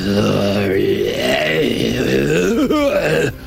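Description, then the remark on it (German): A person imitates a low, drawn-out monster growl, meant as a troll's growl echoing from afar through corridors: a rumbling voiced groan lasting a few seconds with wavering pitch, loud, with no other talking. “Plötzlich hört ihr aus einer Ecke von weitem ein Grollen, was durch die Gänge hallt.”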